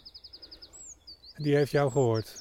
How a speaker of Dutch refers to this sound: Ik, je hoort wel een winterkoning nu alarmeren.